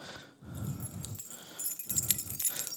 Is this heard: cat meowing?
no